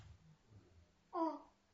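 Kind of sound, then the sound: human body sound, baby babbling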